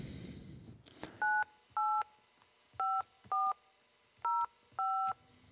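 A phone number is keyed in on a touch-tone phone: six clear dual-tone beeps in an uneven rhythm, each with a soft button click, fairly loud with no talking.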